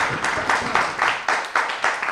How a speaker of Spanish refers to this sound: Venga, un aplauso le damos. Venga.